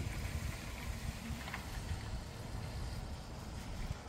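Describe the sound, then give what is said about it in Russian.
A steady, low engine rumble of the neighbours' car driving past outside, muffled, holding an even level throughout with a faint airy hiss and no voices. “Нет, это машина едет у нас. Соседи наши проезжают.”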